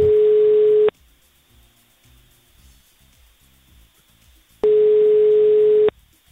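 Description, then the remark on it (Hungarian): A phone call rings out unanswered: two steady, mid-pitched ringback tones, each about a second long, separated by a few seconds of faint line hiss and no voices. “Nem veszi fel a naphallgatóján.”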